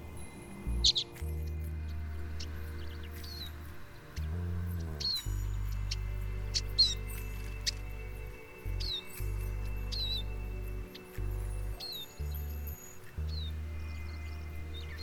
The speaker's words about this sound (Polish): mają czerwone czubki głowy i takie ładne prążkowane upierzenie i ich głos brzmi czet czet i właśnie stąd ta nazwa czeczotka. Nazwa czeczotka nie pochodzi wcale od czeczotkowego forniru na meblach, tylko właśnie jest wyrazem dźwiękonaśladowczym.